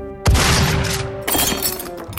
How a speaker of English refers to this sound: And we get another nightmare of broken glass.